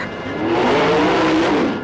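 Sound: car engine revving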